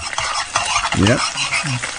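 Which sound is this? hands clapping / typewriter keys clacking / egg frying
egg frying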